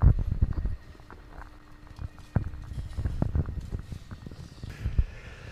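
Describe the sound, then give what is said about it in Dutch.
Footsteps tread steadily across a hard path outdoors as people walk through the entrance of the Oosterpark, with light wind buffeting in the background and faint ambience. “Wij lopen door de ingang van het Oosterpark en we gaan eigenlijk direct naar de vuilnisbak die we daar zien.”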